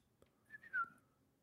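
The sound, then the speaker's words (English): A short, clear whistle of two quick notes, a brief tone followed by a stronger sliding one, used by Kraglin to control the flying arrow Yondu left him. It is fairly quiet and heard alone, with no talking over it. “Yeah, the whistle cool. thing that Yondu left him.”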